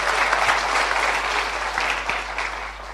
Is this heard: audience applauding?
yes